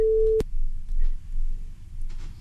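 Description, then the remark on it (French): A short, steady telephone busy tone on a call-in line, its switchboard overloaded by many calls, sounds for a moment and is cut off by a sharp click, leaving a low, rumbling line hiss with no one talking. “On a un problème avec le standard. Beaucoup, beaucoup d'appels, encore une fois. Et donc, ça fait exploser le standard.”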